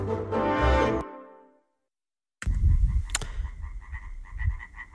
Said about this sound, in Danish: Ja, det er en løv, løvfrø. Ja, det er en del løvfrøer, kan jeg så høre.